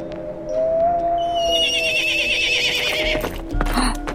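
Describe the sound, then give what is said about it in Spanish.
A horse lets out a loud, drawn-out whinny, its shrill pitch wavering and rising before trailing off, with a few faint hoof clops and shuffling underneath. “Sara escuchó el relinchar de un caballo”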